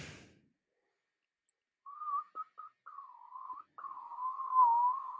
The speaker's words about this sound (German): Da, zählt das als Pfeifen? Nee, es ist ja kein Pfeifen, oder? Ja, ich würde es durchgehen lassen.